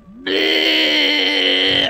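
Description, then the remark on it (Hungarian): A person vocally imitates Godzilla's roar: one loud, sustained, screechy cry lasting under two seconds. It starts abruptly after a brief rising note and holds steady at a high, strained pitch. “Godzilla üvöltés!”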